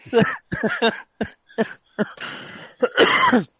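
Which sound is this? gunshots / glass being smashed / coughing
coughing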